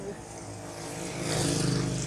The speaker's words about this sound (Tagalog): Sorry, may truck ulit.